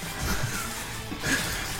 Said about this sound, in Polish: Kartka szeleści, czy dobrze jest ci?